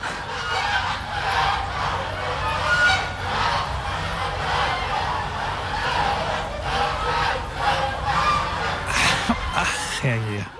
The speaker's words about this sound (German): jemand käme bei uns auf die Idee, mitten in der Stadt Gänse auf einer Terrasse zu halten